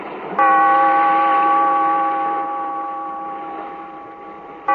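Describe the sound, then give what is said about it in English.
A large, deep bell, tolled by the bellkeeper in the radio show The Weird Circle, tolls once and rings on with a long, slowly fading hum, then is struck again just as the sound ends. No voices. “From the time-worn pages of the past, we have heard another immortal tale in The Weird Circle Bellkeeper, toll the bell.”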